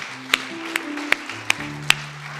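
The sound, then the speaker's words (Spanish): An audience claps hands in unison, five sharp, evenly spaced claps in a steady rhythm, ringing out over a soft bed of sustained musical tones with no talking, at the close of an online MIM Church service from Ciudad Miguel Alemán, Tamaulipas. “Junte sus palmas.”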